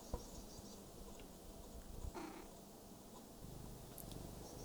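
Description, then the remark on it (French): Bumblebees buzz busily around flowers on a sunny day in late March, in a low, steady drone that carries through the whole clip, quiet, with faint outdoor ambience and a couple of soft clicks. “J'entends les lézards se faufiler entre les pierres et les feuilles, les bourdons animés les fleurs, les guêpes cherchant où faire leur nid.”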